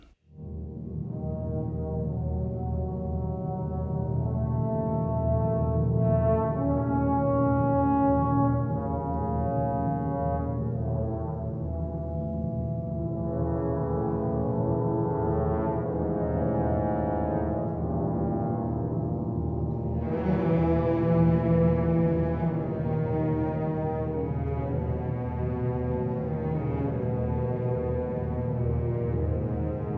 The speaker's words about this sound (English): As Fricka leaves, trombones remind us of the curse on the ring, and bassoons and others recall Wotan's frustration.